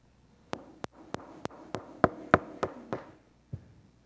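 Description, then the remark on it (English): About a dozen sharp knocks rap out in a steady, insistent rhythm, fairly loud, the middle few hitting hardest before the knocking trails off, with no voices. “We're asking prayerfully, seeking properly, and finally, we knock persistently.”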